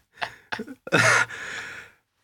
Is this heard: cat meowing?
no